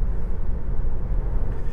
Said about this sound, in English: So the car is does it, the car is slowing down for the cars that are going slower in front of me, um, and this car does have a lot of has a, a, a number of auto drive features. It does not have the full autonomous drive.